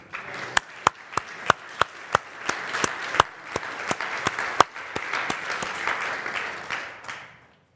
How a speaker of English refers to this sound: We appreciate you, and even allow the church just to clap for our sister.